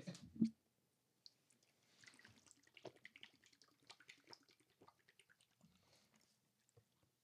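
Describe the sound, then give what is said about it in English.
Water pours from a tap and splashes in uneven spurts, with small clinks and drips for several seconds after a soft thump at the start; no one speaks. “get water.”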